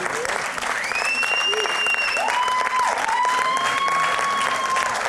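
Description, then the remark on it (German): An audience applauds steadily, dense clapping filling the whole stretch at a strong, even level, with a few whistles and cheers rising over it. “Applaus, ganz wichtig, ja.”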